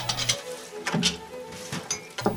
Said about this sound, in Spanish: Nos encontramos en alguna casa de cualquier pueblo o ciudad. Son las 2 de la tarde y una madre lava los platos.